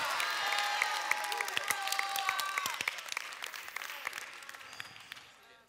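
An audience at a worship service claps and cheers together in praise, dense applause with scattered shouts and whoops rising over it, sustained and fairly loud before gradually tapering off toward the end.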